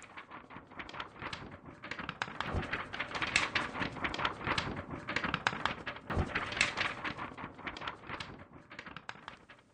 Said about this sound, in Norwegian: Hører du lyden av papir?